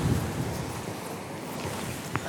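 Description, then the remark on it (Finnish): A steady wash of choppy sea water around a small boat rocking on the waves, mixed with gusty wind rumble on the microphone and a brief slap near the end. No one speaks. “Tässä saa olla kyllä sen verran aaltoa, että mene keinuun, niin saa kyllä vähän kuin semmoisella tasapainolaudalla”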